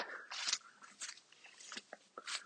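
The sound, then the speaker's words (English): Footsteps trudging through dry wheat: a steady series of rustling, crackling crunches, one roughly every half second, with brittle stalks snapping underfoot. No voices. “And yeah, just trudging through the wheat here.”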